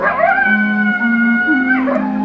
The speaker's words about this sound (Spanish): Solo se oye el aullido del coyote.